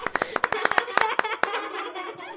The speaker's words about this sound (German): Lisabella und die Tiere freuen sich und klatschen.